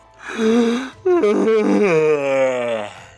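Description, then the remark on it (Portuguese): A person gives a loud, exaggerated yawn: a breathy intake, a brief break, then a long voiced groan sliding downward in pitch before fading out. “É, o vou dá um bocejo assim.”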